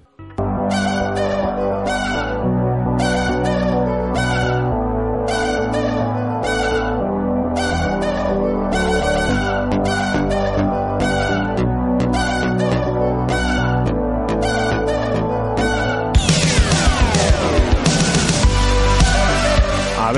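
radio show jingle

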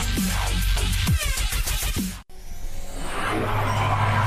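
car engines revving

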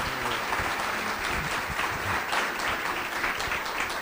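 applause

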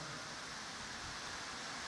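rain falling

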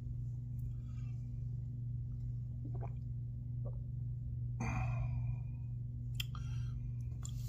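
sipping coffee

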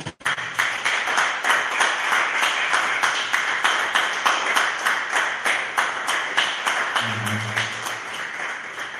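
audience applauding

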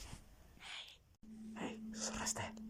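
eerie whispering voice

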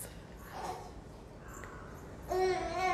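baby babbling

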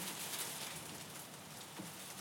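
heavy rain and hail

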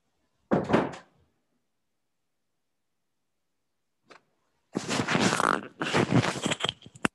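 door being opened

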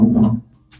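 chair moving

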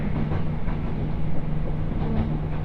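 train running on rails

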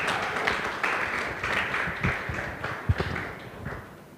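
audience clapping

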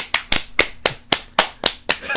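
hands clapping

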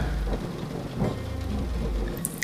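rain with thunder

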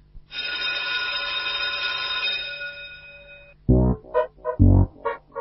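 school bell ringing

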